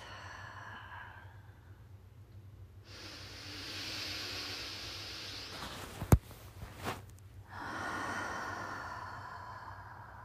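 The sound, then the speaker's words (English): Slow, deep breaths during a guided breathing exercise, a long airy inhale through the nose followed by a breathy exhale through the mouth, quiet over a low hum, with a couple of soft clicks between breaths. “And we're going to take some deep inhales through your nose and out your mouth.”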